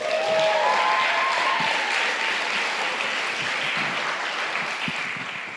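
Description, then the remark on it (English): Sustained applause from an audience for a person who has just spoken on stage, dense steady clapping with a few whoops or cheers early on, gradually tapering slightly toward the end. “Let's hear it again for him.”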